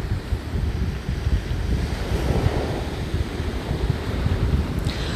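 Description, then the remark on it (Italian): Sea waves wash steadily against the shore, a continuous rushing surf with a low rumble and some gusty wind noise, moderately loud, with no voices. “Fai in modo che il tuo respiro piano piano diventi sempre più calmo e più lento e ascolta queste meravigliose onde del mare.”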